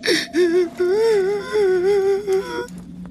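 A boy cries in fear: a sharp gasp, then a high, trembling wail that wavers in pitch and breaks into shaky sobbing bursts, loud and with no talking.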